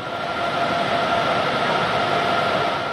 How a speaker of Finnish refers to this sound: Ja nämä kryostaatit, ne pumppaavat ja puuskuttavat koko ajan, kun nestemäistä heliumia kierrätetään niiden sisällä.